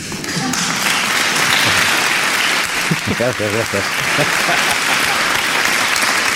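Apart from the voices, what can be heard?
applause sound effect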